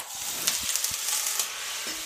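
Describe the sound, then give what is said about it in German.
Butter sizzles steadily in a hot frying pan where a bread roll has been browned, a dense crackling hiss with small pops and spits scattered throughout, heard alone without any talking; the pan has just been taken off the heat. “gerade mal die Pfanne ein bisschen runterkühlen, damit hier nicht das, der Rest Butter verbrennt.”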